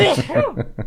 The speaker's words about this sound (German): Oh Gesundheit. Ähm, Gesundheit.